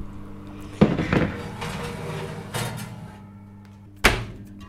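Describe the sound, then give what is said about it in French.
A clafoutis dish is slid into an oven with a few metallic clunks and rattles, then the oven door shuts with a firm bang. No one speaks. “Et il faut juste que j'enfourne en fait, c'est ça.”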